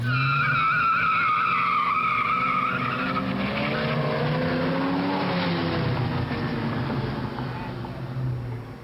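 A race car engine revs hard and climbs in pitch while tires squeal and skid, loud, with the roar sustained for several seconds before easing off at the end.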